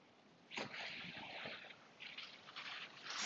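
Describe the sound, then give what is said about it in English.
Ocean waves wash steadily against the shore around 8 a.m., in a soft, continuous hiss, swelling in surges as each wave rolls in and breaks, with wind. No voices are heard. “Sound of the ocean, the waves rising against the motion, the wind, the sun glistening on top of the water.”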